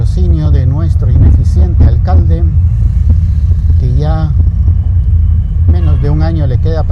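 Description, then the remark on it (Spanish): Steady low rumble of road traffic runs throughout, like cars and motorcycles, with a man talking over it almost the whole time. “Bueno, ya casi llegamos, tráfico como siempre, gracias al patrón.”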